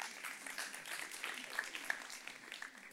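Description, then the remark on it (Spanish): A crowd applauds with steady, dense clapping that fills the full three seconds, a bright crackling wash of many hands with a few sharper claps standing out, and no talking over it. “Denles un aplauso a estos muchachos.”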